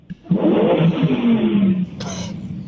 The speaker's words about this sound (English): So it's, it's, it's a little bit of a it's a, it's an angry 5.2 liter Coyote V8 supercharged V8